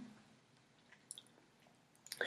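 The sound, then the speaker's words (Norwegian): Soft, wet smacking and slurping chewing noises of eating a dumpling, in a few brief bursts over near silence, growing louder and messier toward the end. “Og bjørnen ga med glede bort en sølvpenge, og spiste dumplingen, og lagde mange mm og slafselyder, for så god var dumplingen at han fikk vann i munnen.”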